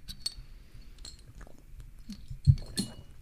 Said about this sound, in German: Kleine Brauereien, so, hoch die Tassen. Erstmal Prost. Prost. Prost.